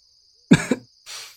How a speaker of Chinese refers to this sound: 裴玉咳嗽两声，脸色又白了一分，左右死不了。